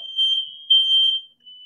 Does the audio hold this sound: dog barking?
no